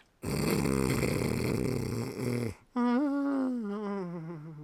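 A man's loud, harsh snore rattles steadily for a couple of seconds, sounding like scaffolders drilling, then gives way to a wavering, droning groan on the breath out. No one speaks.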